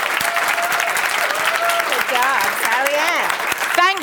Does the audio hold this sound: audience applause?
yes